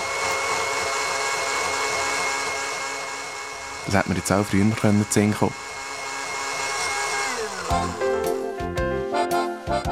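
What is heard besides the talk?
electric mixer whipping cream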